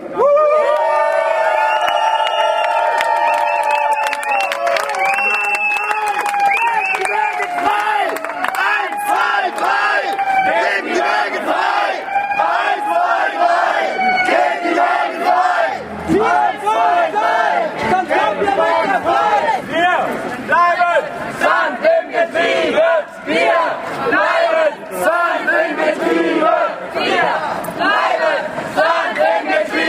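A loud protest crowd cheers, whoops and shouts together at a solidarity action for the Wagengruppe Sand im Getriebe in front of the Freiburg town hall (Rathaus), with rising group cries and overlapping voices filling the whole stretch without pause.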